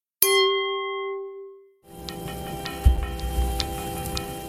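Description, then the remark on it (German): Wine glasses holding an Austrian biodynamic Grüner Veltliner clink once in a toast, a bright ring that hangs and fades for over a second, followed by rustling and light clattering as the glasses are handled. “Auch wenn es draußen noch nicht so wirkt, hier im Glas hat der Frühling schon begonnen. Prost!”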